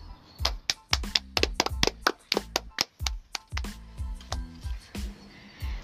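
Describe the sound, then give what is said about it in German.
Hands clap in quick, irregular bursts, around twenty sharp smacks over a few seconds, some landing close together and others spaced apart, each with a dull low thump beneath the crisp slap. “So, warum haben wir jetzt eigentlich geklatscht?”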